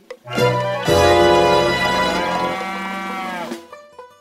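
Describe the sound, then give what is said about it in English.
A cow moos loudly, one long, deep, drawn-out bellow lasting about three seconds before it trails off into quiet. “But the cow said, Moo! So loudly”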